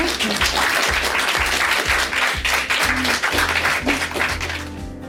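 An audience claps steadily for several seconds, a dense, sustained wash of applause filling the space, with a faint low rhythmic music bed running underneath and no one speaking.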